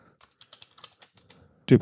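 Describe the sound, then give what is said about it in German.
A quick run of soft, irregular key clicks from a computer keyboard, followed by a sudden louder clack and rattle at the end. “Ach Gott, der diese Tastatur.”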